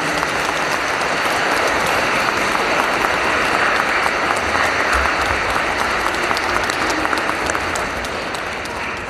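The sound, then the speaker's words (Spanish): A church audience at a Sunday parish gathering applauds members taking part in a parish mission of evangelization, a dense, even wash of many hands clapping that holds at a fairly loud level for the whole stretch, with no voices standing out. “Les damos un fuerte aplauso y los animamos a seguir.”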